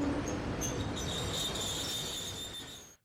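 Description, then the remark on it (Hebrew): Railway cars of a train carrying babies, toddlers and children roll past at a railway station in Poland on the border with Ukraine, with a steady low rumble and thin, high metallic wheel squeals drifting over it, continuous for a few seconds before cutting off abruptly. “פשוט מורידים קרון אחרי קרון, שומעים את בכי התינוקות, פעוטות, ילדים בתוך הרכבת, זה פשוט מחריד.”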